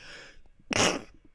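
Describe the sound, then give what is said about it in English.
A single sharp sneeze bursts out, preceded by a brief breathy intake and followed by quiet background noise. “Yeah, that was a sneeze.”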